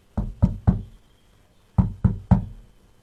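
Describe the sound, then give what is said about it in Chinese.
Knocking on the door of Hagrid's small wooden hut: two quick groups of three firm, hollow raps, each with a low woody thud, separated by a short pause. No voices accompany the knocks. “哈瑞敲门时，听见屋里传来一阵阵紧张的挣扎声和几声低沉的犬吠，接着传来海格的说话声：“ 往后退，牙牙，往后退。”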